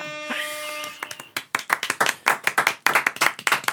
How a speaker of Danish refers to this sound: vi klapper herinde.